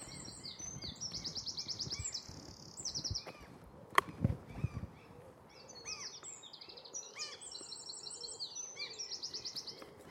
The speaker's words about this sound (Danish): For eksempel var der en meget fin fuglesang der. Hvad er det for en, vi hører? kunne godt være rødkælken. Eller også er det den der gæresmutte deroppe. Det er faktisk en gæresmutte. En af de mindste fugle, vi har.